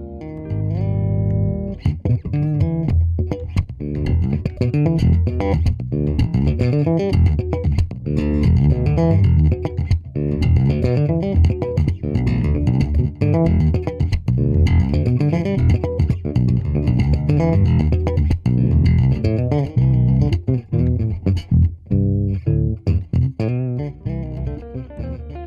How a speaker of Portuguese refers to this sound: Então, ouçamos um trechinho do seu baixo elétrico com trastes.